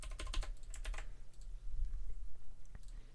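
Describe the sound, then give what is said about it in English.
Quick bursts of typing on a computer keyboard while logging in, a flurry of crisp key clicks early on, then sparser taps against a low steady hum. No one speaks. “Okay, so we're just getting logged in here.”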